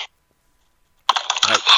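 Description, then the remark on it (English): After a short silence, a quick burst of clattering keystrokes on a computer keyboard, fairly loud, continuing steadily to the end. “Oh, he's typing.”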